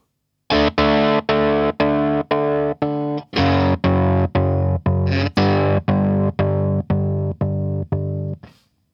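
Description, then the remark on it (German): A distorted electric guitar played through an effects pedal with its depth knob adjusted, repeating a steady series of chugging chords in even rhythm with a pulsing, modulated tone, loud with no talking. “Der ist halt, das ist halt eigentlich dieser Depth-Regler, glaube ich.”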